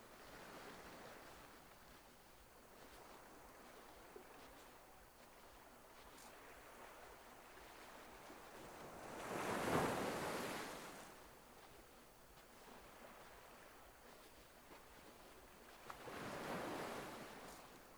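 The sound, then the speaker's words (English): Ocean waves roll in and break on a beach, two distinct surges swelling and fading over a steady background wash of surf, heard alone with no voices. “The sea is glimmering”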